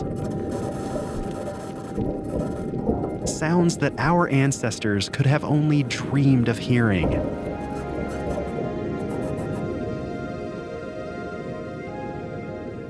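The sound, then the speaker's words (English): Low, steady rumbling Martian wind noise with a hollow, muffled quality, recorded on the surface of Mars by the Perseverance rover in 2021, with the clunk of the rover's wheels over the surface, runs through the whole recording, while a man speaks briefly over it in the middle. “These are the sounds of the Martian winds and the clunk of the rover's wheels over the planet's surface.”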